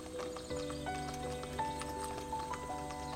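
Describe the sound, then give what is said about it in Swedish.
Horse hooves clip-clop in a steady rhythm while a horse neighs and whinnies with a long, wavering call, clear, with no talking, at a roadside stop where horse and carriage are changed. “vid ett hak för att byta häst och vagn.”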